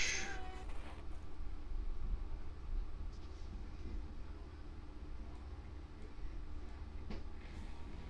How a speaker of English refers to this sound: Oh, you got cats.